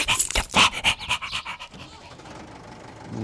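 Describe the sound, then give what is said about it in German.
A dog pants quickly and loudly in a steady rhythm of breathy huffs, which grow weaker and trail off into a faint, low hiss. “Schau, nimm ihn aus meiner Schnauze.”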